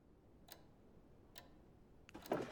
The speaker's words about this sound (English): And this clock was one that Schlesinger found